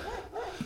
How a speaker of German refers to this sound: hörst du den Hund? das Schlimme ist so, ich sehe den Hund nicht, ne? Aber er kommt immer näher, Bro.